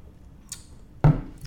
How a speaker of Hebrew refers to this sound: אז תגידו לי לחיים, כי אני עכשיו שותה, אם אתם זוכרים, אני שותה לפחות שני ליטר ביום